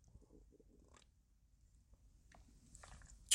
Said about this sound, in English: Let me just take me a sip of coffee.